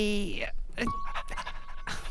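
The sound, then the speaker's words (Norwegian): A person imitates a dog panting with the tongue out, a quick run of breathy, rhythmic huffs after a short voiced sound at the start, fairly loud and continuous throughout. “Jeg har tunga ute. S svetter med tunga. Jeg er sånn i hunder svetter. Puster.”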